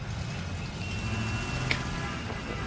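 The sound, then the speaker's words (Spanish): Busy city street traffic in the morning with a steady low rumble of engines, vehicles passing by, and a brief high beep or brake squeal cutting through the continuous urban noise. “Ah, parecía que todos los autos del mundo habían decidido circular esa mañana.”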